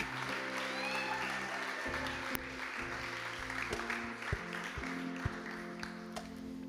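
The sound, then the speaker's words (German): A large audience applauds a team in a dense, sustained wash of clapping, with a few sharper individual claps standing out; faint background voices mingle beneath it. “Ja, komm, lass uns dem Team doch einen riesen Applaus geben.”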